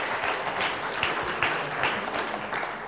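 An audience claps steadily for a team, a dense, even wash of many hands with no pauses, holding a moderate level throughout with no voices rising above it.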